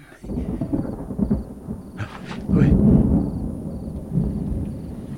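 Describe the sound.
Thunder rumbles low and heavy through a stormy night, swelling loudest midway before rolling on, with a brief spoken exclamation near the start and faint rain hiss behind.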